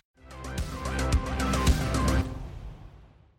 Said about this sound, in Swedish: Ska vi, det låter som att någon fyller på en, eh, snarare att någon fyller på en sån luftmadrass.